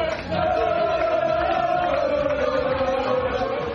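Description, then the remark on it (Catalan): The Girona football team celebrates in its dressing room after a 4–3 win over Atlético de Madrid sealed by Iván Martín's 91st-minute goal: many voices chant and shout together in a loud, continuous roar with a sustained sung note running through it, boisterous. “Aquest és el so del eh, gol d'Ivan Martín al minut 91 i del eh, vestidor del Girona després del partit”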